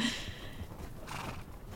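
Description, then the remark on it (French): Horses being ridden at an unhurried pace in late morning heat of over 35 degrees, their hooves clip-clopping softly and steadily against a hissing outdoor background, with no one speaking. “Il y a ce long silence, on est à cheval en fin de matinée, il fait déjà chaud, hein, il fait bien plus de 35 degrés.”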